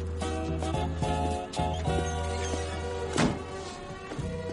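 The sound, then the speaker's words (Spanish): A single dull thump as a young man closes a door after hanging a backpack on its inside, landing about three seconds in over steady background music with sustained tonal notes; no one speaks. “El joven cuelga la mochila en la parte interior de la puerta y cierra.”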